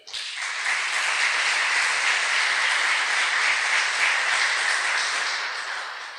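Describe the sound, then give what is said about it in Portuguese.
A church audience applauds steadily for about six seconds, a dense wash of many hands clapping at an even, sustained loudness before tapering slightly at the end, with no voices over it. “Um aplauso para ela.”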